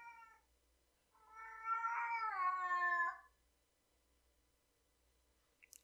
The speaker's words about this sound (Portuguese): Tá, obrigado. Vocês estão vendo que até minha gata tá participando pra caralho desse podcast hoje. Porque ela também tá irritada com você.